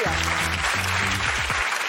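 The audience of the TV show C'est que de la télé applauds steadily to welcome the evening's guest, a dense crackle of many hands clapping with no break, while low sustained tones from a music sting sit underneath and fade out near the end.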